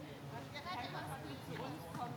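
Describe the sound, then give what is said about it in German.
Steady footsteps crunch and rustle through dry fallen leaves, continuous, with faint voices murmuring in the background. “Schritte, also raschelndes Laub, quietschendes Kind.”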